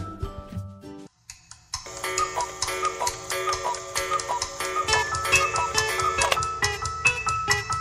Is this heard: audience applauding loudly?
no